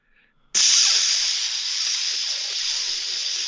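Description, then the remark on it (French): A voice imitates a can of Raid insecticide being sprayed at a mass of cockroaches under a drawer, making a long, steady spraying hiss that starts abruptly and holds loud for about three seconds with no words. “Fait que là, moi, de, mon grand génie de pas de quotient intellectuel, pas en tout, je m'en vais prendre la canette de Raid.”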